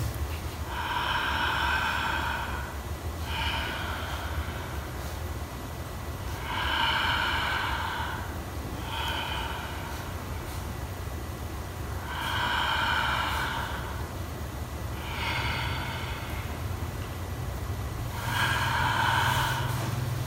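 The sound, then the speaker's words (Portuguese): Slow, deep breaths drawn in and out, about six or seven cycles in a steady rhythm, airy and noisy, over a low constant rumble with no talking. “Eu continuo respirando.”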